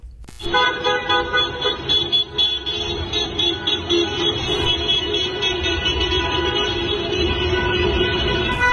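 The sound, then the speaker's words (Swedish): Car horns honk continuously in a flag-waving car parade several hundred metres long driving through Malmö, many overlapping tones blaring at once for the whole stretch, loud, over a rumbling backdrop of traffic and crowd noise. “Och i Malmö körde en flera hundra meter lång bilparad flaggviftande och tutande genom stan, vilken avslutades med fyrverkerier.”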